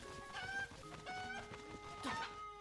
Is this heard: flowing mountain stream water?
no